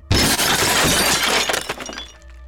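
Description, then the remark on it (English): An old ceramic figurine falls and smashes loudly on a hard floor in the middle of a room, a sudden crash followed by shards scattering and tinkling as the debris settles over about two seconds, with no voices. “Renee sees another one shatter to the floor next to him.”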